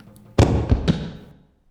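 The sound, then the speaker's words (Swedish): A man's body lands hard on a floor after a long fall, with a loud, heavy thud, quickly followed by two smaller knocks as it settles, then a short ringing decay into silence. “Han landar på ett golv. En rätt hård smäll blir det, men det gör inte ont, vilket förvånar honom.”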